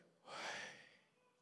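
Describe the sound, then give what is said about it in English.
A single audible breath exhaled as the outtake of a breath said to match the second syllable of Yahweh, a soft airy rush that swells quickly and then trails off over about a second, with no talking around it. “The two syllables of Yahweh match up with the intake and the outtake of a single breath, and when naturally voiced, the breathing in sounds like and the outtake”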